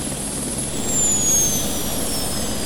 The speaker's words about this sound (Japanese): 点のようなものはだんだん大きくなってこちらへ近づいてきますそれは1台のヘリコプターでした